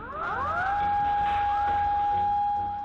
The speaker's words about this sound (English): And then the sirens started going off. A tsunami was on the way.